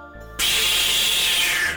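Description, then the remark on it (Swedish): A loud, steady pneumatic hiss bursts in abruptly, holds evenly for over a second, then tapers off, as a sliding door glides open onto a long, white, sterile corridor. “sen så tar hon ett steg undan och du ser hur dörren”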